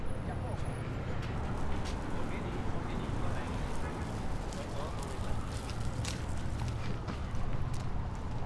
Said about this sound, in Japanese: 押されるベビーカーが踏む枯れ葉の割れる音だとか風に吹かれて木々がカサカサという音だとか。